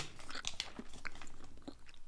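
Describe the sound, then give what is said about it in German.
Crunchy chewing and biting on hard candy, a quick cluster of sharp crackly bites followed by softer irregular mouth sounds, with no one speaking. “Kann man wahrscheinlich nicht lange kauen, aber.”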